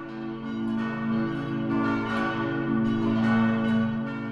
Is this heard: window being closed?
no